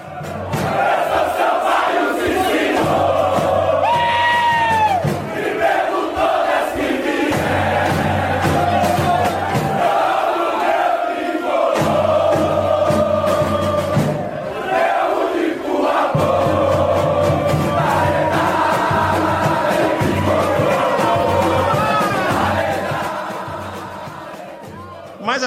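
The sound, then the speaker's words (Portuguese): A large stadium crowd of Sampaio Correia football fans chants in unison, loud and sustained, with rhythmic pulses and rising cheers, the massed voices echoing steadily for the whole stretch. “toda semana a gente entra aqui com um grito da torcida, e essa semana a nossa homenagem com Cânticos da torcida do Sampaio Correia.”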